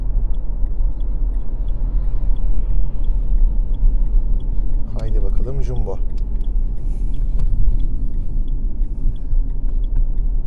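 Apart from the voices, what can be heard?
car driving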